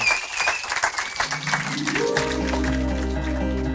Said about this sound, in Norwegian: Så jeg syns vi bare skal klappe for deg, Roy, og gratulere med 30 år med seier seierherrene.